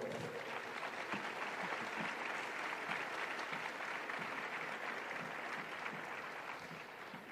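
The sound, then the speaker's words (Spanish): Sustained audience applause for the geopolitologist Marcelo Gullo fills the space, a dense wash of many hands clapping steadily at a fairly loud level, tapering slightly toward the end with no talking. “algunos tan brillantes como el presente Marcelo Gullo, para el cual pido un aplauso, que está allí, por favor.”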